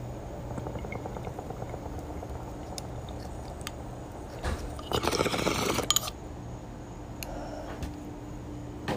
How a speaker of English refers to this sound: bong rip. You guys got your weed. You got your dabs. You got something. Get that ready. Cheers, guys.